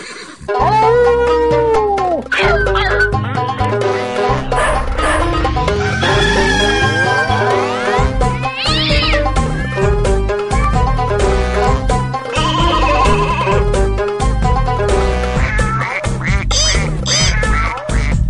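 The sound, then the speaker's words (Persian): A loud, busy chorus of farm animals calling over one another: ducks quacking, a rooster crowing, chickens clucking and a bleating goat or sheep, with no one speaking. “وایسین بگم همه بیان همه ی حیوونا آمادن یک دو سه”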